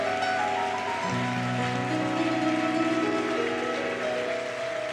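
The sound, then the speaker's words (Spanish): A church audience applauds the Lord, clapping loudly and steadily for about five seconds, a dense wash of hands with no pauses, while sustained keyboard chords ring underneath. “Si le hago un, un aplauso al Señor, déselo fuerte, o sea, de verdad que se sienta.”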